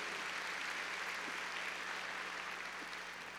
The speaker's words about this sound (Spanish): A ver, palmas fuertes a nuestro Señor. Gloria a Dios.